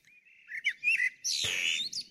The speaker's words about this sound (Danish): Det kan være lyden af en sommerdag, der begynder, eller lyden af en sommerdag, der slutter. Jeg er ikke rigtig klar over, hvilket sprog den synger. Men uh, anyway, solsorten, som vi elsker, som i Sverige er nationalfugl